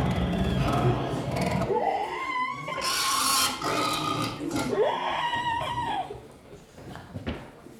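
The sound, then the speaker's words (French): A pig squeals and grunts loudly, several shrill rising squeals broken by rough, noisy snorts, with no talking over it. “Pour en revenir à Saint-Précaire, quand même, le cochon, il a sauvé Saint-Précaire.”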